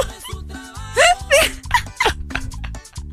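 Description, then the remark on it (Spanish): Hiccups: a handful of sharp, squeaky vocal bursts at an uneven rhythm, some rising in pitch like little yelps, over a low buzzing background. “¿Cómo se quita el hipo?”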